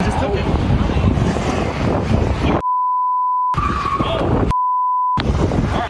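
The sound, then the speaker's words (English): A stolen car roars away from a car theft in Chicago, clipping a parked police car, amid loud, rushing street noise and shouting voices, the commotion twice cut off by long, steady censor bleeps before resuming. “As the thief heels away, he actually clips a parked cop car.”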